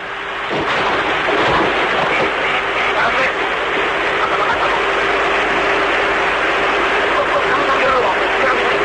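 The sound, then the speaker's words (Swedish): Two explosions go off in quick succession near the start aboard an airliner over Sagami Bay, 50 kilometres outside Tokyo: dull heavy booms over a constant loud roar with a steady humming tone running underneath throughout. “Plötsligt hörs två explosioner tätt efter varandra.”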